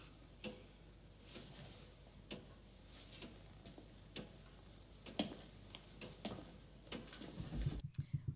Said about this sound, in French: Voilà, donc euh, c'est le moment où, euh, comme on dit, il n'y a plus de musique, il n'y a plus rien, il n'y a plus de bruit, et euh, juste l'horloge qui, arrive